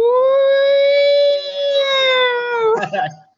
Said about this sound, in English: Beans, if you can put in some police sirens, that'd be fan fucking tastic